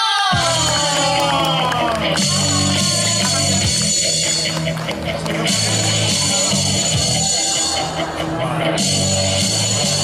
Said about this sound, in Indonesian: Oke, okay, kasih tepuk tangan.